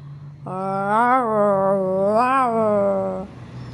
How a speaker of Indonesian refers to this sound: kayak kucing garong sepertinya sih ya